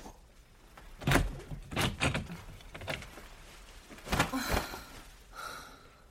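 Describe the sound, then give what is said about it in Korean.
A bedroom door being opened: a series of clunks and handle rattles, a louder knock-like thump partway through, then a short creaking scrape at the end. No one speaks. “문좀 열어봐.”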